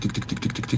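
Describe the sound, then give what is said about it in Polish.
A voice imitates footsteps on stairs with a quick, steady run of about six short clicking syllables, moderately loud, with no other sounds. “I po chwili też słychać y, drzwi otwierane u góry gdzieś, kroki po schodach. Tik, tik,”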